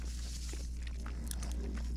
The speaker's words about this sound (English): sorry y'all, I don't want me chewing in your ear too much. This bacon is crispy.